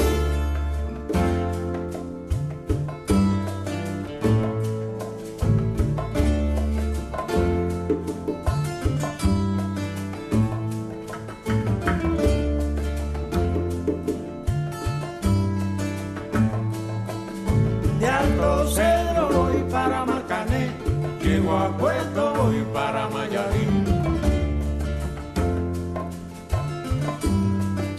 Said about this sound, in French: tu as choisi une autre musique, …, …